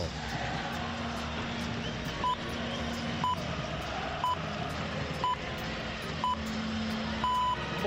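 Radio hourly time signal pips during a basketball broadcast: five short beeps a second apart, then a longer final tone, steady and clear over a dense, noisy background with some faint voices.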